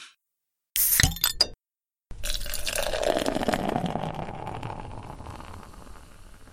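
A couple of sharp glassy clinks, a brief pause, then beer poured into a glass in a steady stream, its pitch shifting as the glass fills, clear with no talking.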